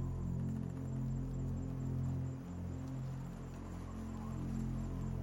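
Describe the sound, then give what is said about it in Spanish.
Faint, steady chirring of crickets in the background over a constant low droning hum, quiet and continuous throughout with no voices. “Por un lado escuchas a los insectos, los grillos.”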